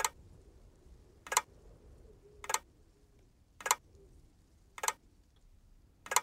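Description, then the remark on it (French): Six sharp, evenly spaced ticks about once every 1.2 seconds, like a clock's hands, heard from upstairs in a house, clear over a low, quiet background hum with no voices. “Mais lorsque je m'approche des escaliers, j'entends du bruit en haut, similaire aux aiguilles d'une horloge.”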